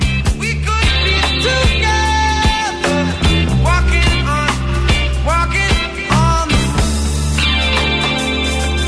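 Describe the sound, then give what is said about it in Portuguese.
A reggae-flavored rock song plays loud, with a steady offbeat rhythm, sustained bass, and a sung melody gliding over the band throughout. “Daria até para dizer que esse é um som do …, hein?”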